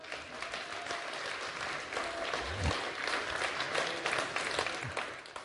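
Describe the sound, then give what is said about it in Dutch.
A large church audience claps steadily and enthusiastically for Jesus for several seconds, a dense wash of applause with a few louder claps standing out. “Geef Jezus een goede applaus.”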